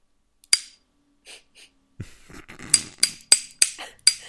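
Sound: tapping a drinking glass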